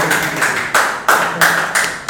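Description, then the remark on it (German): Audience applause, a dense wash of hand claps that swells in steady rhythmic pulses about three times a second, fairly loud, with no voices over it. “Ja, Könnt ihr mal Applaus haben? Ein Applaus.”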